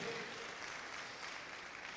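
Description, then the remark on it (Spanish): A steady wash of applause from a crowd, given to the Lord, dense and crackling across the whole clip with an even loudness and no clear pauses. “Déselo al Señor ese aplauso esta noche.”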